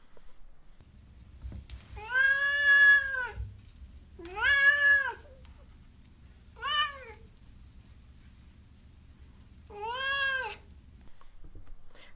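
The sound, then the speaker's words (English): A cat named Duarte meows four times, clear, with long drawn-out cries separated by pauses, the third one shorter, over a faint steady low rumble. “Uh, next up, Duarte's Corner, where my cat Duarte, of course, gives his opinions on the books.”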